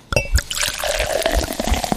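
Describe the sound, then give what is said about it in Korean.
Lemon-lime soda (cider) pours steadily into a cup, a continuous fizzy, gurgling stream with a rising tone as it fills, fairly loud, with no voices. “네, 탄산음료 컵에 이렇게 따르는 소리입니다.”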